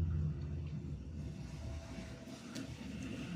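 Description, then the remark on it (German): A bus rumbles past with a low, droning engine, followed by three motorcycles, fading into steady street traffic noise with a brief higher engine whine. “Ein Bus fährt vorbei, gefolgt von eins, zwei, drei Motorrädern.”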